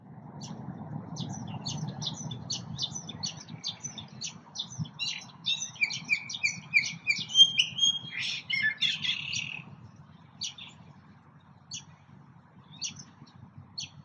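Birdsong recorded with non-professional equipment, made of rapid, high-pitched chirps repeating in quick bursts, building to a busier stretch of trilled, sliding notes midway before thinning to sparse calls, over a steady low hum.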